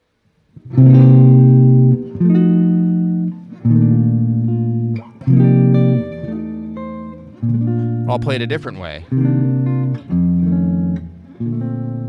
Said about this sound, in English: Right? Can you hear that that's a 251 chord progression? Okay, a 251 chord progression.